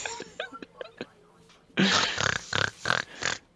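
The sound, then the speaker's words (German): A voice imitates a pig, starting with a string of short squeaky oinks, then breaking into louder, harsher snorting grunts in a rough rhythmic series, clear. “Schweinchen sein! Schweinchen sein!”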